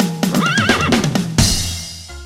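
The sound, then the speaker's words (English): A pony neighs loudly, one long quavering whinny that wobbles up and down in pitch before ending in a breathy snort that fades out. “Why couldn't the pony sing a lullaby? Because she was a little horse.”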